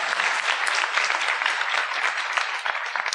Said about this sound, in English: And yeah, sure, let's give that a little applause. There. Why not?